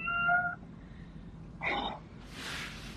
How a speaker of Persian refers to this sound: گربه ندارم فکرم گربه بود نه این صدای سوت قطار بود من اینجا نزدیک بانهوفه نه خیلی نزدیک ولی دیگه میدونی آلمان چطوریه